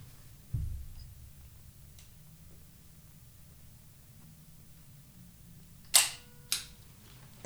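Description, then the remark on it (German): A phone camera's shutter click sounds near the end, a crisp two-part snap in quick succession, standing out clearly against a quiet background with a few soft low thumps around it. “Soll ich da in die Kamera schauen, oder?”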